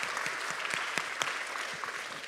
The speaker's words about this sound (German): But before I bring the word of God, I would like us to really put our hands to our team, the service to make the service happen. Aber bevor wir anfangen, klatscht doch erstmal für das Team, die den Gottesdienst möglich machen.